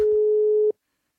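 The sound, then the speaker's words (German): A single steady electronic phone ring tone, like a caller hearing the line ring, lasting under a second and then cutting off into silence, as a hairdresser calls again in the late afternoon and nobody answers. Loud and clear, with no voices. “Als die Friseurin am späten Nachmittag wieder anruft, nimmt aber niemand ab.”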